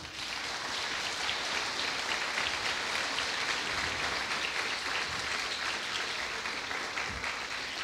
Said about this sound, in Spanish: ¿Qué tal si le da un aplauso al Señor?